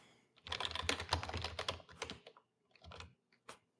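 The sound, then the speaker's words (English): Rapid clacking of computer keys in a dense burst, then a pause and a few scattered keystrokes, clear with no voices; someone taking notes while unmuted on a call. “Oh, somebody's typing.”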